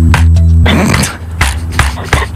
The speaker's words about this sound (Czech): Tak půjdu hádat, že to mohla být klávesnice třeba. Klávesnice je dobrá, ale klávesnice, já skladně zkusím klávesnici a zkusím se jako bouchnout sám do hlavy.